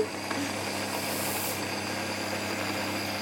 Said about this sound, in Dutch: Dan gaan we de blender aanzetten. Dit is de première van de blender, want we hebben een nieuwe blender, jongens. Oké. Oké. Eh, kijk, hij is nieuw, hè? Dus... Ah, voilà. Hij doet het.